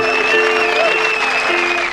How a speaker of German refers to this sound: Ach, das vermisst man, oder? Diesen Applaus. Das war mir ein inneres Wellenbad, ehrlich.